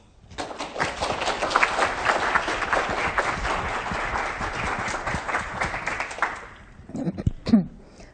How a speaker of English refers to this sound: So please join me in welcoming her with a large round of applause.